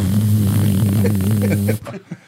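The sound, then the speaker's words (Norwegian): A voice imitates the electric buzz of floodlights being switched on at a match: a steady, low, droning hum held for almost two seconds, loud, before cutting off abruptly. “Nei, nå slo de faktisk på flomlysene. Du ser, du hører jo på lysene når de blir slått på.”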